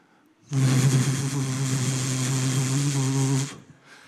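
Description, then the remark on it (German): An electric hand dryer blows for about three seconds, a loud, steady rushing whir over a low motor hum, switching on and cutting off abruptly with no voices. “Das sind diese Föhns.”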